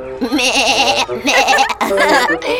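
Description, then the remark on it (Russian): A man's voice imitates a goat, giving three loud, quavering bleats in quick succession, each with a shaky vibrato and brief pauses between them; he is a village mummer at Christmastide dressed as a goat, with a felt boot on a beam and legs stuck out in front. “Это дяденька … накрылся, надел на балку валенок А к валенку приделал рожь ножки выставил вперед и мекает.”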